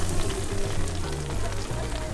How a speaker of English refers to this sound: fried the mushrooms in oil and mixed them with pieces of chicken.